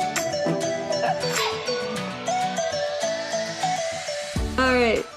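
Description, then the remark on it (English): Dog woofs pop up within a busy, bright musical jingle, short barks mixed among tones and a rising sweep near the end, all fairly loud. “we got some woofs.”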